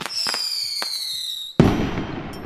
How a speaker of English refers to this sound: And why do some things like a firework blow up with a bang